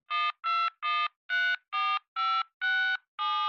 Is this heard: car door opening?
no